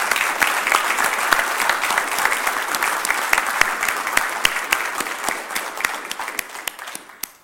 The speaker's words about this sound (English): But before we do that, uh, we want to include everybody in this appreciation. Let's give them both hands of applause.